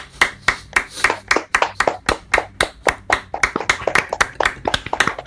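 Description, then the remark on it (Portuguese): A small group claps their hands in a quick, steady burst of applause, sharp slaps repeating for several seconds with no voices over them. “Uma salva de palmas pro Davi Luiz, por favor.”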